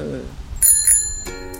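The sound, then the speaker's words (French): A bicycle bell rings twice, then a third quick ding, each bright metallic ring lingering, rung by an instructor as the signal for cyclists to stop their bikes. A brief voice is heard just before the first ring, and low background rumble runs underneath. “Et là, quand je fais la sonnette, tu arrêtes ton vélo.”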